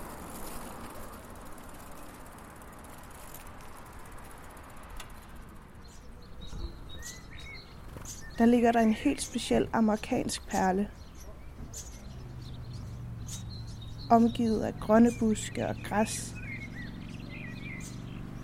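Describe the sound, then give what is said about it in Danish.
Birds chirp and twitter faintly while a person speaks, an outdoor ambience of incessant spring birdsong with light, scattered calls running under the talk, often interrupted by some larger birds. “En ustandsig forårskåd fuglekyder.”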